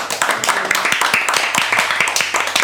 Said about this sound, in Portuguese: Salva de palmas para todo mundo.